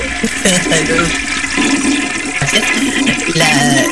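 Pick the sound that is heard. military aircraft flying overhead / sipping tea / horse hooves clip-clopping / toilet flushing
toilet flushing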